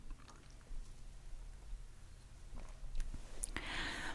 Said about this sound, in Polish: Pewnie słyszycie te przełykanie, ale piję sobie właśnie podwójne espresso i jest bardzo mocne.